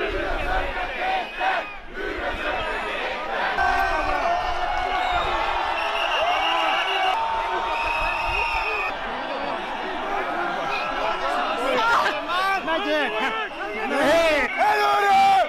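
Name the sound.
protest crowd shouting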